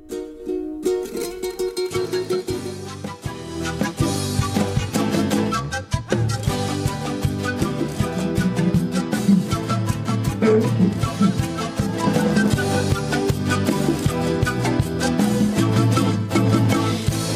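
A band plays a full, steady song with dense layered instruments and a driving rhythmic pulse, loud and continuous throughout, starting after a brief quiet moment.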